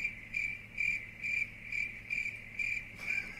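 Crickets chirp in a steady, evenly spaced rhythm, about seven high trilling pulses over a faint low hum, clear, with no voices.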